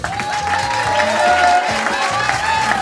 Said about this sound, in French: Oui, alors euh, je vous demande d'applaudir euh,